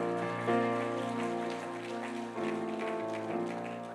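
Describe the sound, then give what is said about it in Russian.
Steady, dense clapping from a church audience giving applause to God carries on for several seconds, layered over sustained keyboard chords that shift a couple of times, with no talking. “Давайте дадим Богу аплодисменты.”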